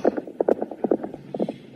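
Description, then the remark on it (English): Horse hooves clip-clop in a quick, steady rhythm as a rider leaves on horseback, a string of hollow knocks on hard ground that fades slightly as the animal moves off. No voices are heard. “And when he was done, he got back on his horse.”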